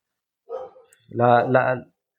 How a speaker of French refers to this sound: ah, comme chaque fois qu'on enregistre un podcast, j'ai un chien qui, qui, aboie. Alors, je vais te demander deux secondes pour fermer la fenêtre ou essayer d'attraper le chien. J'arrive.